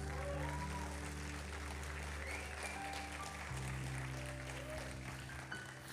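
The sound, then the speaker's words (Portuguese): An audience applauds Jesus during a sermon, dense clapping for about six seconds at an even, fairly loud level, with sustained low musical chords holding underneath and shifting once partway through. “E durante, aleluia, aplauda Jesus.”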